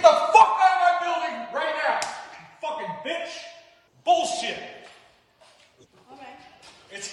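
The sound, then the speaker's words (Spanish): A man slaps a woman electrician across the face with a sharp, hard crack in the middle of loud, heated shouting and cursing, and the yelling carries on after the single smack. “Y le comienza a decir un chorro de malas palabras y le da tremendo cachetadón.”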